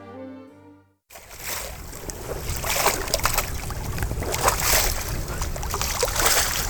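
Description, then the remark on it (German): Calm sea waves wash steadily onto a beach in a continuous soft roar with gentle swells, following a brief tonal note at the very start. No voices are heard. “Die Wellen des Meeres fließen ruhig und leicht.”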